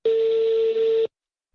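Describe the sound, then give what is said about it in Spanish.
A single steady electronic telephone keypad (DTMF) tone as a telephone number is dialed, loud and clear, holding for about a second before cutting off into silence. No voices are heard. “Y denos un número que funcione, escucha.”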